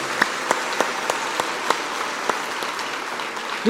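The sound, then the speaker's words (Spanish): A short burst of applause from a group at the end of an exercise during a talk, a steady patter of many hands clapping with a few sharper claps standing out, ending as a voice begins to speak. “Un aplauso para mi miedo.”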